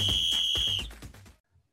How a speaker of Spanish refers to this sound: Esperemos que te lo disfrutes desde que empieza el partido hasta escuchar el pitido final.